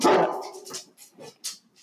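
A dog barks loudly once as someone arrives, then follows with several quicker, softer yips and whines, an excited burst of barking with no one talking.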